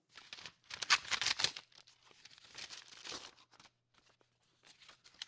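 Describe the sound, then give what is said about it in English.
An envelope of documents is torn open: paper rips and crinkles in several bursts, loudest in the first second or so, then softer rustling and handling of paper with brief quiet gaps. “Do you mind if I open this here?”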